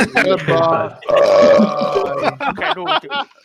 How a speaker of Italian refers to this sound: Questo non significa che dobbiate smettere necessariamente di ruttare, però era troppo ruttare.